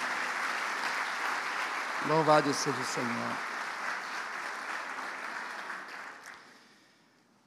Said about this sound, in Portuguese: Amém? Essa é a minha família. Vamos dar um aplauso para eles? Glória a Deus.